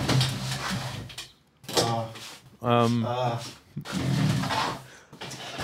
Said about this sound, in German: Ähm, Stuhl wechseln, sonst knarzt ich wieder. Wie in der South Park Folge den Stuhl wechseln.